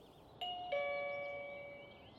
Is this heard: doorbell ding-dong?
yes